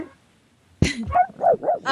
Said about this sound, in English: but back to this before I was rudely interrupted by my dog.